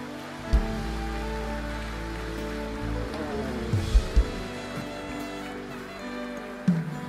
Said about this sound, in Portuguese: Vamos aplaudir Jesus aí.